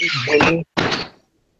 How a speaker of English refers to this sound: his door sounds like Freddy Krueger scraping across a boiler room